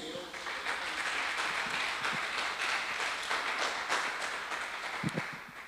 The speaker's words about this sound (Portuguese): Você pode dar um aplauso ao Senhor por isso?